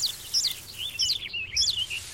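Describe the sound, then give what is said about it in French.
A blackbird and its chicks call as it feeds them a piece of earthworm: several high, thin chirps and calls overlap in quick bursts, with a soft rustling background and no talking. “Bon appétit, mes petits Le merle a partagé un bout de lombric entre ses oisillons et il est déjà reparti.”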